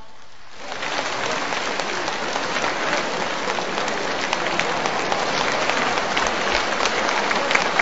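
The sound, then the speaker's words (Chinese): An audience at a Wuxi opera event breaks into sustained applause welcoming 80-year-old opera teacher Mei Lanzhen, after a brief quiet moment, a dense, steady wash of many hands clapping at even loudness for several seconds with no one talking over it. “今天呢，八十岁高龄的梅兰珍老师也来到了我们的现场，让我们用掌声有请梅老。”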